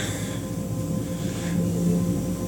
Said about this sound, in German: So, jetzt kann es natürlich sein, dass ihr hier so ein Rauschen im Hintergrund hört. Das ist die Klimaanlage.